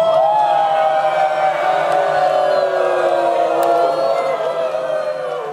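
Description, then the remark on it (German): A large audience cheers loudly and continuously, a dense wash of many overlapping voices shouting and whooping at a steady level for several seconds, as spectators wave small flags during a stage performance of Hamlet. “Jubeln Sie, schwenken Sie, jubeln Sie, geben Sie alles.”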